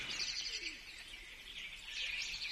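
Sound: birds chirping outdoors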